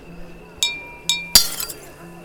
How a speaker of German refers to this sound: schlug mit einer Gabe gegen ein Glas, welches natürlich zersprang.